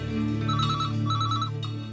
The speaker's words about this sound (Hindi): इतनी सुबह सुबह किसका कॉल आ गया